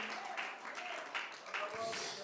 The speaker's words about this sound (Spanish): Hermano, usted lo puede sentir ahí en el lugar donde está. Puede abrir sus labios y alabarlo y aplaudirle con todas sus fuerzas.